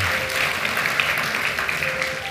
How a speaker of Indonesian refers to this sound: Berikan tepuk tangan buat Tuhan yang paling meriah. Amin, saudara.